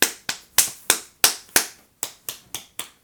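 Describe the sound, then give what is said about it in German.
A series of about ten sharp, fairly loud slaps, a hand striking the inner elbow through a sleeve in a quick uneven rhythm, each a short crisp smack with a brief decay, with no talking. “Guck mal, ist immer noch laut, auch wenn der Ärmel dazwischen ist.”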